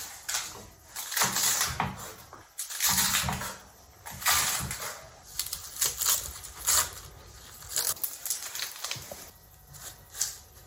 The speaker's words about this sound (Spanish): Mientras esperamos a que el agua empiece a hervir, vamos a ir cortando las verduras. Están todas lavadas, así que ya lo único que hay que hacer es empezar a cortar y añadir.